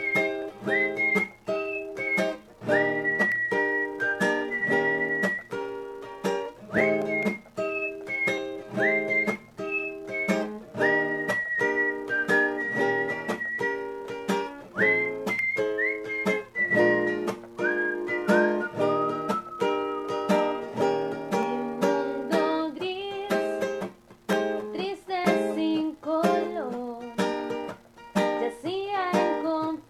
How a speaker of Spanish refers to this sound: Así que vamos a una pausa musical